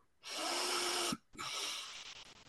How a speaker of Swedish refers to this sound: Så vi gör det här gemensamt nu in via näsan